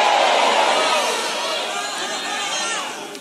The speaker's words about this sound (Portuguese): você pode dar um grito aí bem alto e glória a Deus e aleluia aí.